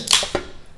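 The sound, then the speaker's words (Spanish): A quick, sharp sneeze: a hissy, bright burst of breath followed a moment later by a shorter second puff, fading out with no talking. “Salud. Uy, saludcita.”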